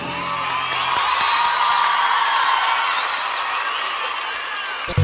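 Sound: applause and cheering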